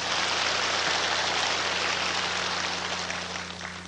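An audience applauds in a dense, steady wash of clapping that holds for several seconds and then eases slightly at the end, with a faint low hum underneath and no voices.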